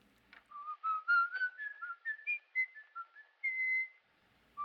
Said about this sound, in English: Um, now, Lorre actually couldn't whistle. So it is, in fact, Fritz Lang on the soundtrack doing the whistling.